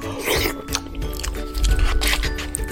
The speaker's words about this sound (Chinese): 于是所有人开开心心的到餐桌上，一阵狼吞虎咽后，